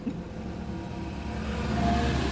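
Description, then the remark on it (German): Steady low engine rumble and road noise heard from inside a moving car in dense city traffic in Dresden, with a faint hum of surrounding traffic rising slightly toward the end. “sitzt auf dem Beifahrersitz und lotst uns durch den dichten Dresdner Stadtverkehr.”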